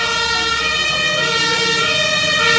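A loud fire engine siren wails continuously, its steady tones filling the scene as the vehicle passes by, with no talking underneath.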